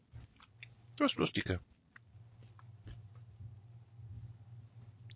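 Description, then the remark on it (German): A burst of crunchy chewing for about half a second as someone eats a small mini bar of crunchy chocolate biscuit from an Advent calendar, several crisp bites of something brittle, followed by softer mouth sounds over a steady low hum, with a short spoken remark. “Und jetzt esse ich eine Tafel, eine kleine Minitafel Knusperkeks aus meinem Adventskalender.”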